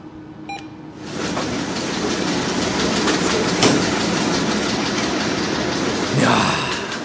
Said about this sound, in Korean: 여러분 무슨 소리인지 아시겠죠? 돈 나오는 소리예요. 현금 인출기. 아, 그냥 듣고만 있어도 행복하네요.